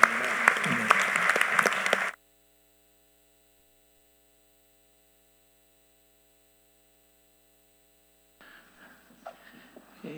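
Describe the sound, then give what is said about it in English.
A church audience claps loudly for about two seconds as an amen, thanking the Lord, before it cuts off abruptly, leaving a faint electrical hum and then some soft, scattered noise near the end. “And could we say amen by clapping to the Lord and thanking Him for what He's doing?”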